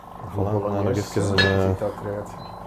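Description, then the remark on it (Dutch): Plates and cutlery clink and rattle as a table is set, with a sharper clatter partway through, while a voice murmurs indistinctly. “Ik held de tafeldekken, of? Duurt dat al te lang? Nee, ik ben dat hier al aan het doen.”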